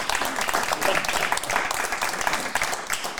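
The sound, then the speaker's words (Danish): A crowd applauds steadily, many hands clapping in a dense, crackling wash that holds an even loudness throughout, with no voices standing out. “Jeg tror lige, jeg knaller den her af, så kan det være, de klapper.”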